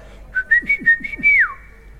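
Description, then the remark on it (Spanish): A person whistles to call children: a short, bright call of quick rising chirps leading into a held high note that glides down at the end, clear with no talk. “Cuando mis hijos se iban por el supermercado siendo chiquititos, eh, llegábamos a la fila de, de la caja y entonces silbaba.”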